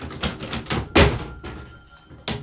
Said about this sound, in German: Ich öffne das Fenster, aber ich werde mir die Ohren zuhalten, damit ich die Schüsse nicht höre. So, die Vorhänge